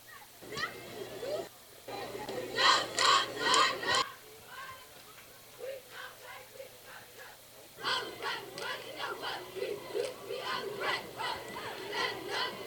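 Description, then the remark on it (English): A large football stadium crowd, picked up by a crowd mic, roars and chants in waves before a second-half kickoff is re-kicked after an offsides penalty, swelling loudly, dipping briefly, then surging again with rhythmic bursts of shouting over a steady wash of voices. “Get the uh, world famous crowd mic going here.”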